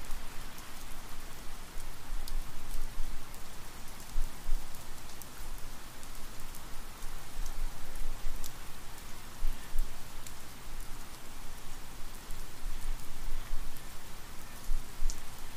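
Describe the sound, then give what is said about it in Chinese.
Light, steady spring rain patters softly and continuously in a dense bamboo forest, a fine hiss of droplets with scattered tiny ticks, even and gentle throughout with no voices. “你的四周是茂密的竹林，在这细细的春雨中。”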